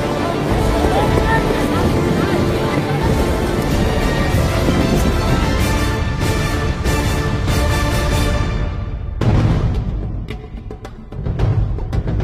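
Loud, steady engine roar from motorized rubber boats during a navy raid exercise, with a brief dip and surge near the end as the throttle changes; wind and water noise blend in, no clear talk.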